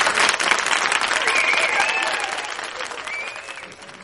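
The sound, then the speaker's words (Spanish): A crowd claps steadily in a dense, continuous burst of applause, with a few faint whistles riding over it, gradually fading toward the end. “Bueno, un aplauso también para ella.”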